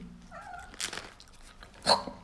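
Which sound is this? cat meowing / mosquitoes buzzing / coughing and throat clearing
cat meowing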